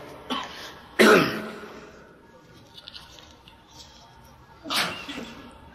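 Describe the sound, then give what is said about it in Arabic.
A loud, sharp sneeze bursts out, preceded by a brief faint breathy sound, and a second softer sneeze-like burst follows a few seconds later. “رحمك الله”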